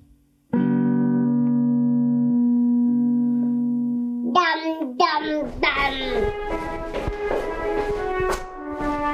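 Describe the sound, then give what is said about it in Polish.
An out-of-tune guitar rings out with a long, steady chord, then gives way to clumsy, uneven strums and plucks that clash against each other, played fairly loud at home during the COVID pandemic. “Na szczęście odkurzacz i rozstrojona gitara to nie jedyne dźwięki obecne w naszym domu w czasie pandemii COVID.”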